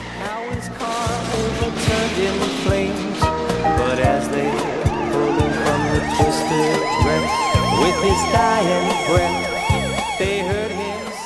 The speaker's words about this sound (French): Tu t'entends que la fin, le gars frappe, puis t'entends, le son de l'accident, puis tout. Puis là, t'entends le son d'ambulance, puis tout, des services d'urgence arrivés.